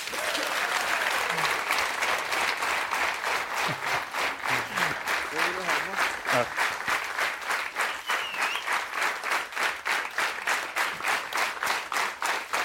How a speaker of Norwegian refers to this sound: Så eh, gi Tom Nordli en stor applaus.